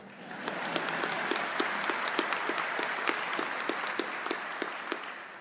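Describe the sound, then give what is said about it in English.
An audience applauds steadily as Michigan Governor Gretchen Whitmer is introduced, a dense wash of many hands clapping with sharp individual claps standing out, sustained at an even level for several seconds without any voices. “A lifelong, you can clap.”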